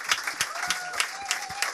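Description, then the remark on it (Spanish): Audience applause following a band's song: dense, steady clapping from a crowd with sharp individual claps cutting through, plus a faint whistle-like tone rising and holding partway through. “un fuerte aplauso, muchas gracias para ellos.”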